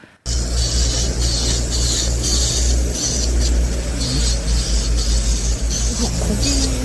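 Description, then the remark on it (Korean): Nail art work sounds recorded with a customer in a one-person nail art shop: a steady electric whir with a low mechanical hum underneath and a high grinding tone that swells and fades in short bursts. No one speaks. “오늘은요, 1인 네일 아트샵에서 손님과 함께 소리를 녹음해서 보내주셨습니다.”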